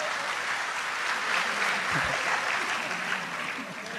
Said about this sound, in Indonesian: Tepuk tangan untuk Gus Kausar nggak apa-apa.